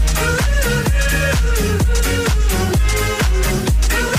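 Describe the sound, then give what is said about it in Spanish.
Loud, upbeat electronic dance hit from 2010 with a steady four-on-the-floor kick around 130 beats per minute, pulsing synths and bright layered melody, with no talking. “O también podéis votar por la opción 2, temazo del año 2010, que suena así.”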